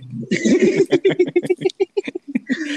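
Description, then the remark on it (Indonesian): A dolphin squeak effect: a fast run of chattering, clicky squeals in about a dozen short, evenly spaced bursts, loud, with no talking over it. “suka dikasih suara lumba-lumba -lumba, sih kalau ada yang gini-gini?”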